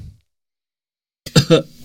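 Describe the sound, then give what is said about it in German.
After a stretch of silence, someone clears their throat in a quick, rough double burst, moderately loud and with no talking around it. “Was ich mir auf jeden Fall noch bauen muss, das ist eine Räuspertaste.”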